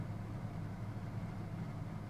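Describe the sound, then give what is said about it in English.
A Volvo car, Edward's, speeding in, its engine rumbling with a steady, low drone at a fairly constant level throughout, with no clear approach or pass-by and no voices. “And his Volvo.”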